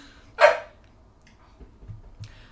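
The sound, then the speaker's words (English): A single sharp bark from Ollie, a pet dog, rings out, followed by a quiet stretch with only faint low background rumble and no further barking. “She's very opinionated at times, so if she just pipes in, she probably has a lot to say.”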